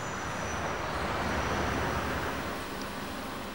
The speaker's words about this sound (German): Jetzt fährt Robert Alvarez das Testfahrzeug auf den Rollprüfstand der Impa Dübendorf.